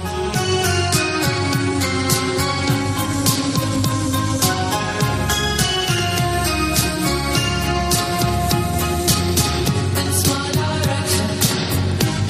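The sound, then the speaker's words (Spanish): A slow 1980s-style pop song plays at a steady, full volume, with a regular drum beat and layered instruments filling the whole stretch without pause. “Es una canción lenta”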